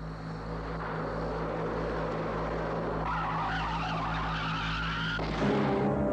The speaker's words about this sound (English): yeah, that's what I heard just before the tire blew out. You're right, it was a shot.